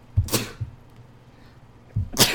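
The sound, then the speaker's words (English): Two sharp sneezes, the second coming roughly two seconds after the first, each a quick breathy burst with no talking in between. “God, God bless you.”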